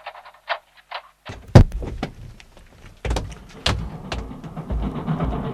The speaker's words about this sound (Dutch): Je kunt die koffiemolen nou wel afzetten. Die staat vlak onder het ruimteschip.